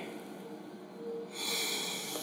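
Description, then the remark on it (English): An airy breath drawn in and then let out, a slow in-and-out of deep breathing during a Christian devotional time, with a brighter, hissier exhale at the end; no voices. “Allow yourself to breathe deeply.”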